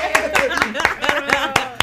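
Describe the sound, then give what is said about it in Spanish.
Several people clap their hands in a quick, uneven burst of sharp claps, with voices chattering and calling out over the applause. “Así como aterrizamos el avión, hay que aplaudir.”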